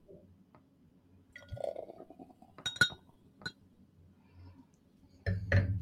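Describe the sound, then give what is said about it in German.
Glasses clink together in a toast to 53 successful episodes: a couple of bright, sharp chinks with a brief ringing tail, followed by a louder burst of clattering handling noise at the end. “Und dann lass uns anstoßen auf 53 gelungene Folgen.”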